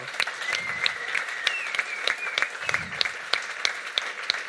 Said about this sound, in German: Herzlichen Applaus am Ländler-Trio jemand talentiert, der da ist und kann Musik machen kann.